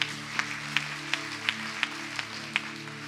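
A crowd claps for the Lord together in a steady, even rhythm, about seven sharp claps in three seconds, over a sustained, humming keyboard chord. No one speaks.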